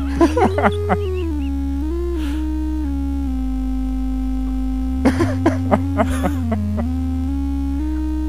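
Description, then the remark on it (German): A synthesizer with its settings heavily altered drones out the melody of a simple children's song about a bird, in slow, buzzing, distorted steps, loud and steady throughout, while people laugh over it near the start and again midway. “vielleicht habe ich an den Einstellungen wow. dieses Synthesizers doch ein bisschen zu viel rumgedreht”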